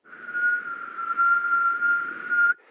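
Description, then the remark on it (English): A person whistles one steady, breathy note through their mouth for about two and a half seconds, fairly loud, imitating the high whistling sound their urine stream makes while urinating, then stops abruptly. “When I pee, it, it whistles, like”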